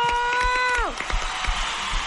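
A steady, buzzy tone holds briefly, then slides downward in pitch and gives way to dense, crackling applause, for someone who went to the gym at 5 in the morning, with scattered sharp claps that continues steadily to the end.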